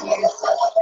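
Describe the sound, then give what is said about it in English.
A female dog barks at a delivery person, several times in quick succession: sharp, fairly loud yelps bunched together in a rapid, excited burst with no one talking over them. “that's my dog.”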